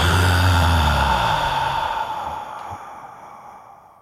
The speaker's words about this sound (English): do one deep belly breath. So, let's do it together. Inhale through your nose, belly fills. Exhale, belly falls.